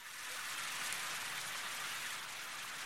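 Steady rain pours down in a continuous, even hiss of countless drops, fairly loud, with no voices or music over it; the rain sound of the Kiss the Radio station jingle played when it rains.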